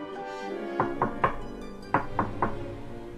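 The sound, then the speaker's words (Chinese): Knocking on the wooden door of a small hut in the forest in two groups of three sharp raps, a short pause separating the sets, over a faint low hum with no talking. “国王来到小屋前。敲门叫道”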